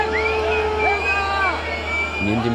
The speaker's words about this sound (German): Pfiffen forderten viele Bäuerinnen und Bauern Neuwahlen.